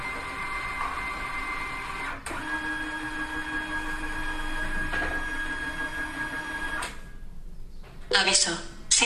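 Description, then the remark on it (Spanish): A DCP-J103 multifunction printer scans an A4 document in black and white with a steady mechanical whir and hum, broken by a brief clunk midway, then a louder rattling burst of motion near the end, uninterrupted by talk. “Y la impresora nos empieza a escanear.”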